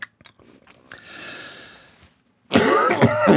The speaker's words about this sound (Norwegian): Sånn er det når vi er direkte. Da kan hosten sette seg i halsen.